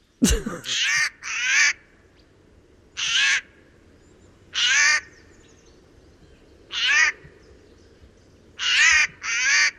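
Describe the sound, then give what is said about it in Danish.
A Eurasian jay gives about seven loud, harsh, rasping alarm screeches at irregular intervals, some in quick pairs, over a faint background hiss. “Først kommer skovskaden.”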